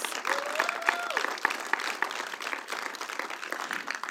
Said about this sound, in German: Ja, gebt ihm mal einen Applaus.